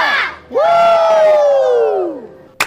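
A crowd lets out a loud, sustained cheer: a short shout, then a long unison yell that slowly falls in pitch before fading. A sharp clap-like snap follows.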